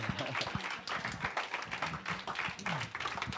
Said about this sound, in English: Come on, clap or something.